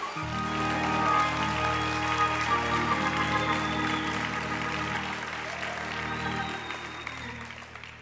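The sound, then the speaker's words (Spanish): A church audience applauds Jesus in a steady, dense wash of clapping that holds for several seconds and slowly thins, with sustained keyboard chords ringing underneath. No one speaks. “Alguien de un aplauso a Jesús.”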